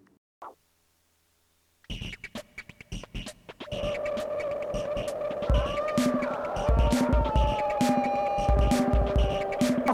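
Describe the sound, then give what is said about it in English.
A self-made, co-produced music track starts after a short silence, first with rhythmic percussive clicks, then building into steady synth tones with a shifting melody and regular deep bass thumps, played loudly with no voices. “So now I present to you the song that me and … made, titled ….”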